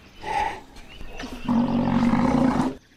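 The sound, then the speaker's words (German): A northern white rhino contact call, used when the animals have moved far apart and one is looking for the other: a short, higher tonal cry, then a loud, sustained, low droning call lasting over a second, with no one talking. “Manchmal, wenn sie sich sehr weit uh, voneinander entfernt haben, gibt es einen Laut, mit dem die eine nach der anderen sucht.”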